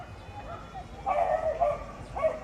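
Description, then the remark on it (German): Around 40 dogs bark and yip outdoors while romping over a hilly lawn in Parque San Isidro in southern Madrid, Spain, with a burst of overlapping barks in the middle and another near the end, over a steady background of open-air ambience. “Gut 40 Hunde tollen über die hügelige Grünfläche, spielen Stöckchen apportieren oder lassen sich von Herrchen oder Frauchen kraulen.”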